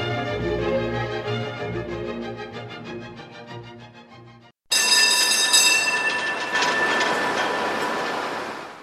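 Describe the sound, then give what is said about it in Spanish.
A historic Tatra T2 tram, built in 1977 in Prague and run by the Prague transport company on historic line 42, runs along its rails: a steady electric motor hum and whine gives way to a louder grinding rumble with high metallic squealing from the wheels. No voices. “El tranvía Tatraca 2 es la última adquisición de la flota de tranvías históricos de la empresa de transportes de Praga, que ofrece recorridos nostálgicos en la línea histórica 42.”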